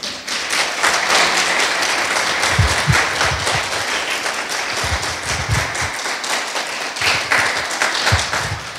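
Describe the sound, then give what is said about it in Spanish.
A church audience breaks into sustained applause in praise of God, the King of Kings, a dense, steady wash of many hands clapping for several seconds at an even loudness, with occasional lower thumps mixed in. “Así es que podemos darle un aplauso al Rey de Reyes.”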